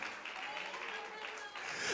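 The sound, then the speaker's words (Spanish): An audience claps together to give glory to God and applaud his presence, many hands blending into an even, fairly soft roar that holds at a constant level throughout. “puedes tomar unos segundos para darle la gloria a tu Dios, para aplaudir su presencia, para decirle, Señor, ayúdame porque no quiero que mi fe falte.”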